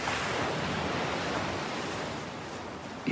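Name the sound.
ocean waves surf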